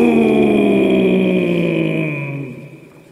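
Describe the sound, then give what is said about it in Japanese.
A single deep, drawn-out shouted "Don!" in the voice of the character Moguro Fukuzō on a radio show, drenched in heavy echo, its low growling tone sliding slightly downward and ringing on before fading away over about three seconds. “じゃあここは深いエコーでよろしく準備は良いか行くぞドーン”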